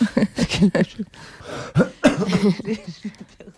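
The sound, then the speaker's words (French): A person coughs and clears their throat several times in quick succession in the morning, a series of rough, fairly loud bursts over a few seconds with no talking. “C'est ma, caractéristique du matin.”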